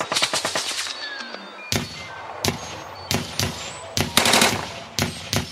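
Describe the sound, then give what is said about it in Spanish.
Rapid bursts of gunfire from soldiers, a quick cluster of sharp cracks at the start followed by repeated loud shots at irregular intervals, with faint whistling tones between them. “Rápidamente, mientras les disparaban estos seres extraños que sin duda eran extraterrestres, se devolvieron hacia su nave entrando en ella y cerrando las puertas.”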